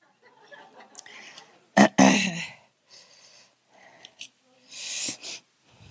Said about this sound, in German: Gesundheit wünschen wir euch auch im neuen Jahr.